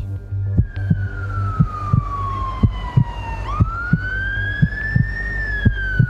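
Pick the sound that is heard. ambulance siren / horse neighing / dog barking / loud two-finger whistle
ambulance siren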